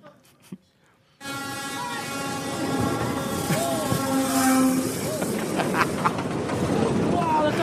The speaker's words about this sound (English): a teenage young man who thought he would be happy if he could stand really, really close to the train and do a selfie as the train went past. And the conductor doesn't approve and kicks him in the head as the train goes by.